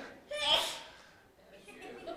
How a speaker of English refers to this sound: Bless you. that was a good sneeze.